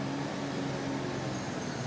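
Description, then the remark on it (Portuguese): A garbage truck driving the wrong way on the street: its engine rumbles steadily, a constant low drone with a faint tonal hum, set against broad street traffic noise. No one speaks. “caminhão de lixo tá aqui na contramão.”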